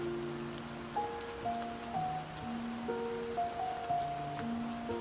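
Steady rain falling in a storm, pattering continuously, an even wash of drops throughout, with soft sustained musical chords shifting slowly underneath. No voices are heard.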